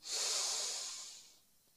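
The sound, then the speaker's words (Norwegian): A long, deep inhale drawn in steadily for over a second during a breathing exercise, breathy with a soft airy hiss, then fading out into quiet; no talking. “Pust godt inn.”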